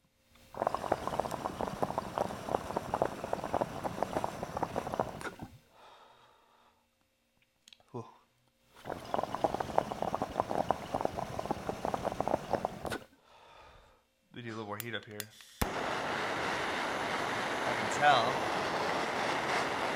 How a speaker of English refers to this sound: Yep, that's doing what it needs to do. That one's gonna be a hot dab. That's perfect. Uh, sizzle from the moisture.